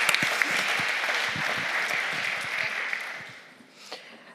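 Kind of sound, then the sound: crowd, audience applause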